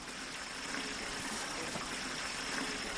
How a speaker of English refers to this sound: points to a ditch containing a small trickle of water.